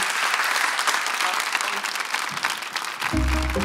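A sustained round of audience applause for authors at a Sydney Writers Festival event, dense and steady clapping from many hands for about three seconds, before a low tonal sound cuts in at the very end.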